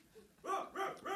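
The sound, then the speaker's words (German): A person imitates a dog barking as a test: three quick, yappy woofs in a row, clear, following a brief quiet moment. No other talking. “Und weil der Hund immer sehr weit entfernt ist, äh, wäre das super, wenn du einfach, wenn der Hund gefragt ist, deinen besten Hund gibst.”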